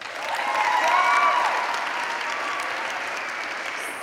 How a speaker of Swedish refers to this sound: Men jag känner också att det satt en applåd i luften efter dramat som inte fick komma ut. Så nu måste vi ge en stor applåd för vår duktiga dramagrupp.